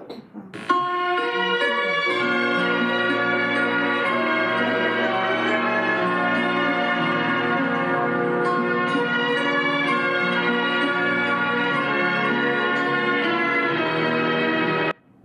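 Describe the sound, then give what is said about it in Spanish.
The Godfather film theme, inserted into the video in editing, plays on its own for about fourteen seconds, a steady, sustained wash of rich, ringing tones at even loudness, with no one speaking. “Pon un soundtrack del Padrino por los que no...”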